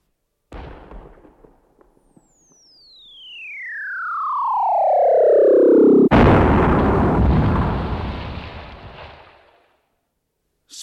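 A cannon shot: a long whistle sliding steadily downward in pitch, then a sudden loud boom that rumbles and fades over a few seconds. No one speaks.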